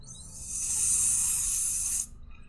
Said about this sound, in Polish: Trochę tak jakby e, coś było nieszczelnego i wypada powietrze. Bardziej niż żeby ktoś wykonywał ten syk. To jest gdzieś u góry.